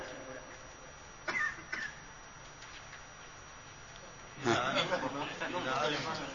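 Someone clears their throat: two short, sharp rasps, followed a few seconds later by a longer, louder, gravelly throat-clearing over a faint background hum.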